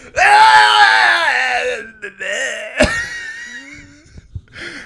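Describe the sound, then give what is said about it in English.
A man imitates a screaming goat with a loud, strained, wavering bleat that trails off into a warbling groan, followed by a brief sharp yelp and a few fainter squeals. “He's like sound like the goat from Goat Simulator”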